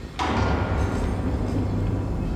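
A sudden, heavy metallic boom as a very strong wave strikes a ship's bow on the Baltic Sea, then gives way to a loud, sustained rumbling roar with deep low-end resonance that carries on without pause as the whole ship rocks. No voices are present.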